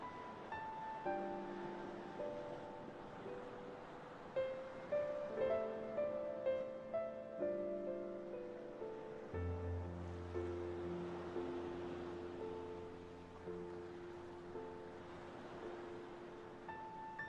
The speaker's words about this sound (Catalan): Potser si vas mantenint aquesta imatge, la teva respiració va tornant també a la calma, a la cadència de les onades tranquil·les. El ritme pausat.